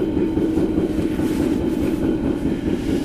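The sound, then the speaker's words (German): An S-Bahn commuter train rolling along the rails, a steady, loud low rumble with a faint rhythmic clatter of wheels running through it, with no voices. “Ja, da sind wir viel ausgestiegen aus der S-Bahn.”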